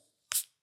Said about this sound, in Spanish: Ese y abrir una lata es el sonido más sensual de la vida. Bueno, Coca-Cola fría.